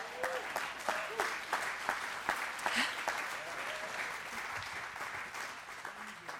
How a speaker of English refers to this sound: Amen. Let's clap over that.